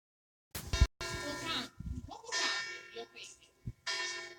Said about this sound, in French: Hop, vous avez les cloches.